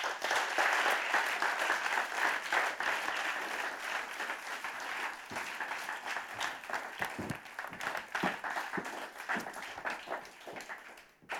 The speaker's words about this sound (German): Lass uns ihnen einen ganz warmen Applaus geben, während sie dafür kommen.